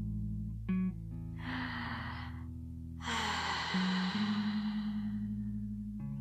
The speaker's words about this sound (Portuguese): Inspire pela boca.